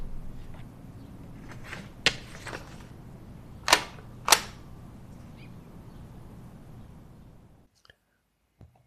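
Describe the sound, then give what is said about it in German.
Office desk sounds: a steady rustling, scratchy noise as a piece of adhesive tape is torn off to stick a card to a monitor's edge, broken by three sharp clicks and a few softer ticks from paper clips, then near silence with faint taps. “So, das waren meine Bürogeräusche.”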